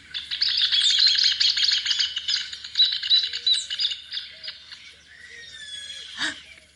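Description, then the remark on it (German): Loud, rapid bird chatter rings out continuously, a busy stream of sharp high calls and trills from a rufous hornero, with other bird notes mixed in and a short squeaky burst near the end. “Kannst du den Käpfervogel hören?”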